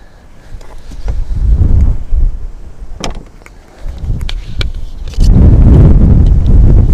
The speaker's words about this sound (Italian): questo podcast è mentre io faccio le foto sentirai il vento adesso